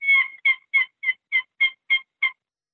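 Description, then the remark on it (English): A high-pitched turkey hen call, a 'Jenny' sound played at the top of a box call with a bloodwood paddle: eight sharp, raspy yelps in a steady rhythm, clear with no talking. “So I could take this one box call and make three different turkey sounds on it.”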